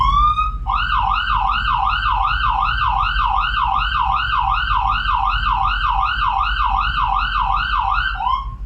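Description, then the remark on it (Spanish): An ambulance siren blares its second tone, used at intersections and where traffic has built up: a fast, rapid rising-and-falling yelp repeating about twice a second without pause, over a low engine rumble. No one speaks. “El segundo tono es cuando llegamos a intercepciones o donde hay tráfico acumulado.”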